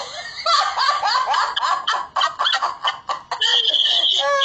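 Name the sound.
rooster crowing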